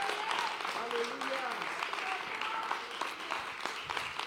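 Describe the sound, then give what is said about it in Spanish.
A church audience applauds the word of God steadily for several seconds, a dense, even wash of many hands clapping, with a few voices calling out and cheering over it. “Dele un mejor aplauso a la palabra de Dios.”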